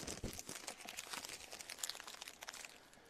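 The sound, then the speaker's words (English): A paper rundown being crumpled up, a continuous dense crackling and crinkling for a few seconds with no talking. “And that happened, folks, to me about 20 minutes ago that resulted in me doing this to the rundown.”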